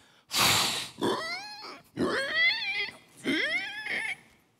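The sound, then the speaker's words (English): Pigs grunt and squeal in four quick bursts as they are fed handfuls of feed from a sack, opening with a harsh, noisy snort followed by higher, wavering squealing calls, with no talking. “Take a handful to the smallest pigs.”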